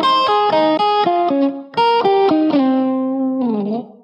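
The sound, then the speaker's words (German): Hawaiian-style music: a short, loud melodic phrase of bright, sustained twangy notes stepping up and down, ending on a long note that bends and wavers. No voices. “Hört mal die hawaiianischen Klänge und Tänze.”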